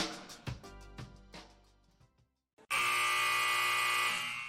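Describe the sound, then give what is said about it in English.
A series of quick, bright percussive hits fades out, then after a short pause a loud, sustained harsh final buzzer blares for nearly two seconds, steady, with no voices. “The sound of the final buzzer means it's hangover time so grab a drink and join your host,”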